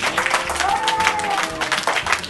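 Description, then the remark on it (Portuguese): An audience applauds a seminarian of the First Presbyterian Church of Indaiatuba as he is introduced to speak on religiosity, with dense, steady clapping at a fairly loud level throughout and a brief high cheer or whoop rising out of the crowd midway. “Uma salva de palmas.”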